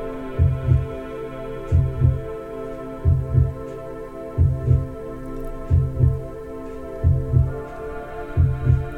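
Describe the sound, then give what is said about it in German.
Deep, steady heartbeat: soft paired lub-dub thumps repeating about every second and a half, seven beats in a row over a low, continuous humming drone. “Und du bist mitten im Zentrum, im Herzschlag des kosmischen Herzens mittendrin.”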